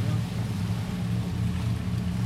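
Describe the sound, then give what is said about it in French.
A medium-sized boat passes on a river, its engine droning steadily, a low continuous rumble with a faint wash of water noise and no clear rise or fade. “Je me dis, euh, c'est pas un petit bateau, c'est quand même un, bateau, euh, euh, comme on voit là, un bateau genre moyen.”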